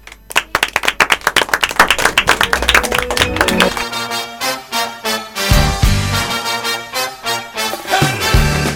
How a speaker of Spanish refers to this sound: Y cuando ya termine la presentación van a estar ellos acá. Y nosotros nos despedimos con un fuerte aplauso, ¿les parece?